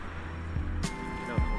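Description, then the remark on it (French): A car passes nearby on a city street, right by the sidewalk, its engine a steady low rumble with a brief sharp noise partway through and a slight swell near the end. “On vient d'entendre une voiture passer, on est vraiment euh, au bord du trottoir quoi.”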